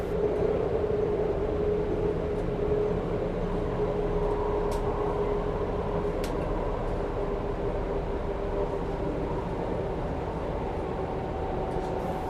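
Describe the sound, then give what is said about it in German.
A train runs steadily on the Pustertal Railway (Pustertalbahn) through the mountains of South Tyrol, a continuous low rumble with a faint tonal hum and occasional light clicks, without any voices. “Auf der Pustertalbahn durch die Berge von Südtirol.”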